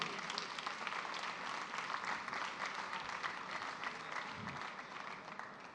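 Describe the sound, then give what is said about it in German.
An audience at a stage show applauds a performer steadily, a dense wash of many hands clapping at an even, sustained level for several seconds with no voices rising above it. “Applaus bitte für Käthe Lama.”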